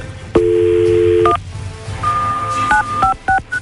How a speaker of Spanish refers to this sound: Ahorita le voy a marcar a Enrique, ¿ok?